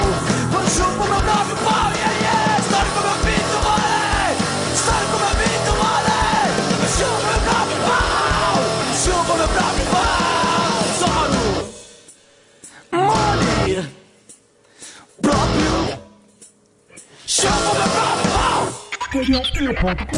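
A loud, dense rock band thrashes along with shouted, yelling vocals, then abruptly drops out, leaving a few short, loud bursts separated by near-silent gaps before the noise returns.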